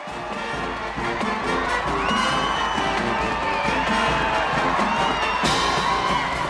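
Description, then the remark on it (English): A loud, continuous roar of a cheering crowd at a high school pep rally, with overlapping shouts and whoops from many young voices, sustained throughout with a sharp burst of brighter noise near the end. “And Adam, it is loud. Everybody's cheering, but then immediately Kilmer gets him to stop.”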